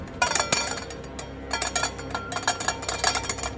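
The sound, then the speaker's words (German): A flurry of loud, tinny metallic clangs and clinks, some rapid and clustered, with a harsh scraping rattle between the hits; no voices. “Dicht gefolgt von einem metallischen, blechernen, extrem lauten Klirren und Reiben.”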